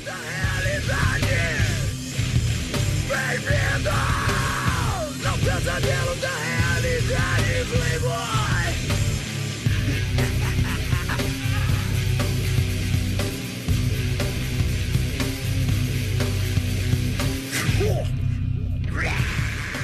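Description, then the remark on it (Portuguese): A loud, dense heavy music track plays continuously for about twenty seconds, with pounding low end, thick distorted layers and a shouted, yelling vocal line riding on top. “Falando do som que tá rolando aqui, porque eu vou tomar uma água antes de começar. Sobe a paulada e eu já volto.”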